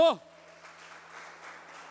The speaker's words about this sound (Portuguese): Você tem o seu nome escrito no livro da vida e todo mundo que concorda com isso aplauda Jesus bem alto.